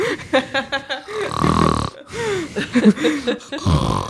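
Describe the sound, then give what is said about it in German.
Loud, rough breathing right up against the microphone, with raspy, snore-like gusts and short voiced grunts in between, filling the whole stretch without clear words. “Irgendwer atmet gerade extrem ins Mikrofon.”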